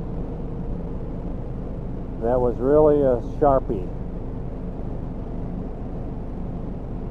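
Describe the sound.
Steady low road rumble inside a car driving home from work runs continuously from start to finish, with a man speaking briefly midway over the constant drone.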